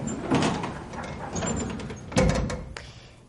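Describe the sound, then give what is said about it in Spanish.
An elevator door closes after people step out, sliding with a low rumbling, mechanical sweep and ending in a heavier thud as it shuts, followed by a fainter settling sound. “Se quedan solas, la puerta se cierra.”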